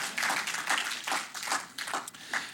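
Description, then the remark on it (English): A short burst of hand clapping from a group, a steady patter of overlapping claps that holds at moderate loudness for a couple of seconds with no talking. “there was a good opportunity for a hand clap and massage my ego just a little.”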